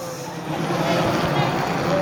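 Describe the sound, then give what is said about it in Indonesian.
A helicopter flies overhead, giving a steady, moderately loud mechanical rumble and whir that holds throughout, with murmuring voices and general outdoor noise mixed underneath. “ini lagi ada helikopter di atas.”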